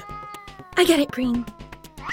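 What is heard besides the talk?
cat meowing in distress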